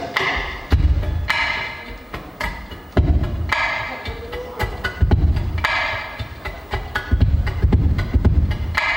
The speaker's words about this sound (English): And then we have then we have kind of like the heartbeat of the ukulele, the bass drum, which sounds like this.